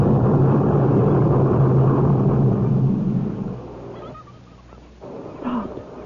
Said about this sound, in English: The ground's beginning to shake. It feels like the whole mountain's exploding.